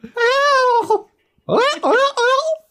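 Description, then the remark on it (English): A voice imitates a seagull with high, wavering squawks: one drawn-out cry, a short pause, then a quick burst of three rising-and-falling calls, loud. “Is that is that seagull enough?”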